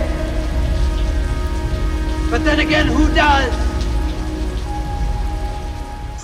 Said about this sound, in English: Doves can't fly in that kind of rain.